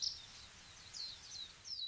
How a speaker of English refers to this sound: Most of the sounds in our day to day lives are somewhere between 2,000 and 8,000 hertz. For example, the sound of a bird singing,